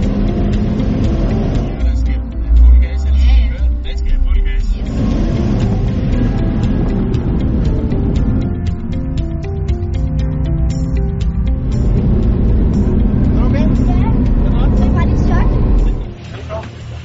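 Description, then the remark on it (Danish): An old car's engine roars steadily as it drives fast on the Jyllandsringen race track in Denmark, loud, with rising revs and a heavy low rumble throughout, and muffled voices underneath. “Også selv hvis en gammel bil, så kører den vildt hurtigt.”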